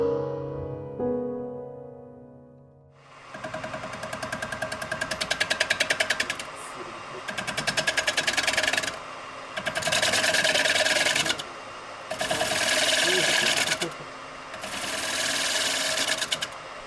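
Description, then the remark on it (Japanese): Wood being carved on a woodworking lathe (rokuro) by a kijishi woodturner making wooden bowls: a steady mechanical whir broken by five loud bursts of rasping cutting, each about two seconds long, after a short tonal fade at the start. “これは何やら削ってているような音が聞こえてきましたこれはあのろくろを使いまして木を削ってお椀とか鉢をこう作っているその音ですね。”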